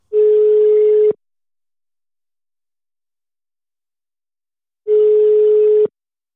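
A telephone line tone heard while calling someone to join by phone: two steady, one-second beeps separated by a long silent pause, loud and clear with no voices.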